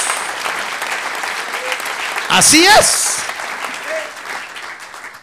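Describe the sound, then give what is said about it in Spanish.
An audience at a Spanish-language church service applauds the Lord steadily, a broad wash of clapping that runs the whole length, with a brief spoken exclamation rising over it midway before the applause continues and slowly eases. “Devolver un buen aplauso al Señor.”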